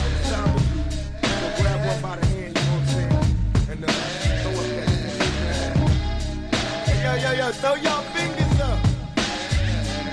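A hip-hop track plays loud and continuous, with a heavy, steady bass beat and punchy drums driving a repeating rhythm under a rapped vocal line throughout.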